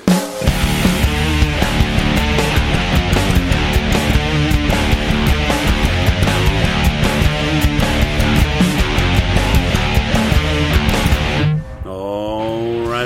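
Loud, dense music with a steady driving beat and layered harmonic instruments plays continuously, then shifts near the end to a sparser, sweeping tonal passage. No voices are present.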